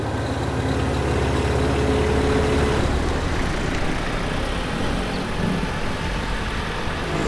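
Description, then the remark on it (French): Old cars crawl slowly in a traffic jam on the Nationale 7 at Lapalisse, their engines idling and rumbling in a steady, continuous low drone, with no one speaking. “Embouteillage sur la nationale 7 à Lapalisse”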